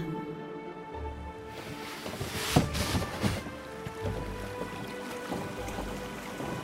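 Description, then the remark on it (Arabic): Oars dip and pull through water in a slow, steady rhythm, with splashes and soft sloshing around a small boat as two people row away from a city harbour. A couple of louder strokes stand out near the middle, with no voices. “بعد فتره خفت اصوات الثوره ولم يسمعا الا صوت تجديفهما”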